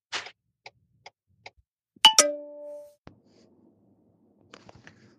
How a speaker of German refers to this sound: da war doch ganz klar und deutlich das Quietschen einer Dachbodenluke zu hören in deiner Aufnahme. Hast du das nicht mitbekommen?